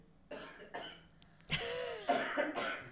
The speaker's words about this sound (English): I have to cough. Give me a second.